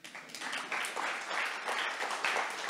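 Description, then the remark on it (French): An audience applauds steadily, a dense, even wash of many hands clapping with no break for the full length, bright and crackling with no voices standing out. “Donc si vous voulez encore une fois applaudir pour vous détendre, vous pouvez le faire.”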